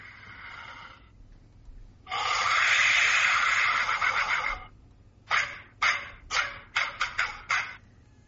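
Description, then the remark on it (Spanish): Air blown through a votive vessel-shaped object gives a harsh, rasping shriek: a short blast, a long loud screeching wail, then a rapid run of six sharp, choppy bursts. No one speaks. “Científicamente, aire a través de un objeto con forma de vasija votiva.”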